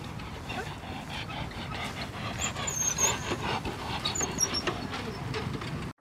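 Harsh, labored panting from a mare that seemed to get too little air, rapid raspy breaths with a wheezing edge repeating in a steady rhythm, fairly loud for the whole stretch before stopping abruptly.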